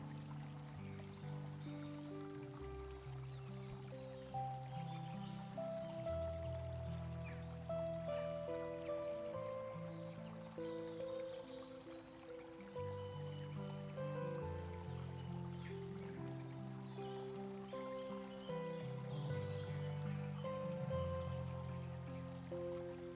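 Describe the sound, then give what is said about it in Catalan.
A river stream flows with a steady, continuous rush of water, mixed with sustained low musical tones that shift slowly. No one speaks. “Segueix a la vora del riu el temps que vulguis.”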